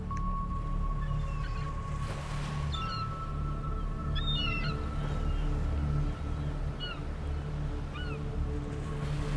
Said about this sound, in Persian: پرنده ها اینجان صداشون رو بشنویم